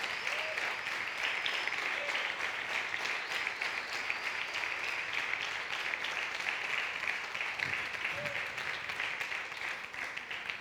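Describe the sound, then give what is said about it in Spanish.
An audience applauds for the Lord steadily, dense overlapping claps forming a continuous, even wash of sound for the whole stretch, with a few faint voices calling out beneath it. “Le puedo mandar un aplauso al Señor, que es lo que dice el Señor.”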